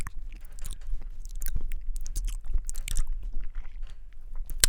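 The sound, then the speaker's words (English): Wet chewing and crunching mouth sounds, with sharp clicks of teeth snapping together scattered irregularly throughout, a person imitating ASMR eating noises with no speech. “So I didn't mean to click my teeth like like that.”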